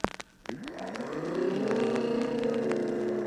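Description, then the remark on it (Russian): Voices imitating jet airplanes: after a few sharp clicks, a whining tone sweeps upward and settles into a loud, steady roaring drone that carries to the end, with no talking. “вы умеете, как реактивные самолеты.”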